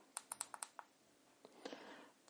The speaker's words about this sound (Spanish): Y luego dando tres clics al botón de calada.